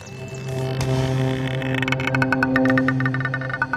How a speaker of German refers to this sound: Jetzt aber der Jingle